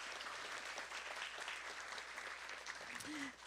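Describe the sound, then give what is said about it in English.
A church audience claps steadily for the church's group leaders, a dense wash of applause that holds at the same level before tapering slightly as a faint voice begins to speak near the end. “So please give all of these people a round of applause.”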